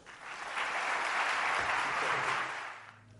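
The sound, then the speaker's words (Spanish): A conference audience in Valladolid claps to welcome speaker José María Doria. The dense, steady wash of applause swells over the first half second, holds strong, then gradually tapers off toward the end. “Y ahora sí, vamos a recibir a José María Doria un fuerte aplauso.”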